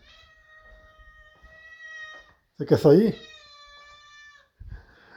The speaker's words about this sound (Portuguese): tem uma gatinha miando aqui. Eu vou deixar ela sair, que ela quer sair.